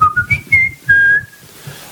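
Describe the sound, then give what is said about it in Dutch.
A short whistled tune imitating a mobile phone ringtone at a book presentation: a few quick notes stepping upward, then a longer held tone, clear and fairly loud, with a faint low rumble underneath. “Ik vraag u alleen, het komt wel vaker voor, om uw mobiele telefoon uit te zetten, zodat we niet gestoord worden door”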